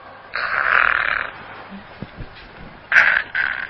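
A storyteller's voice imitates a sleeping toad demon snoring: one long, raspy, croaking snore, a quiet pause with faint clicks, then two shorter rasping snores in quick succession.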